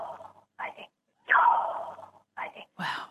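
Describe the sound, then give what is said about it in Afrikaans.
A voice whispers the Hebrew name Yahweh (Jawe), pronounced without vowels, as airy, breath-like syllables, several soft bursts of exhaled air with a longer hissing breath in the middle, sounding much like ordinary breathing. “En as jy Jawe sonder klinkers moet uitspreek, dan klink dit soos asemhaling.”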